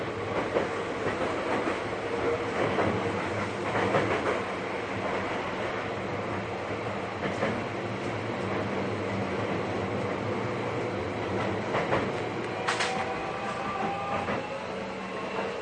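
Steady onboard rumble of a Seibu 40000 series commuter train (S-Train) running from Hanno toward Shibuya, Japan, with continuous rail noise, occasional clattering over joints and a brief high squeal near the end. No talking.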